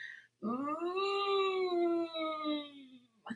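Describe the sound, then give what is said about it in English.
A single sustained, tight and pushed vocal tone, held for nearly three seconds with rich harmonics and a slowly sagging pitch, as a voice imitates strained, forced phonation pushed at the throat level. It's fairly loud. “Um, a lot of times you might hear that push or that strain. They might sound something like”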